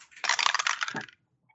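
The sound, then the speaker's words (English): A bright clatter of dice, rolled for a constitution check in a game, tumbling across a hard tabletop for about a second, rattling and clicking before settling, then a tiny tick and quiet. “Constitution rolls all the way around.”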